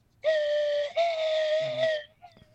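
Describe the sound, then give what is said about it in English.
A slide whistle sounds a loud, sustained tone that wavers slightly in pitch, with a brief break partway through, mimicking the eerie hum of a flying saucer. No one speaks over it. “oh, you know, this is not a slide whistle. You know what the fuck this is? Uh, this is a flying saucer.”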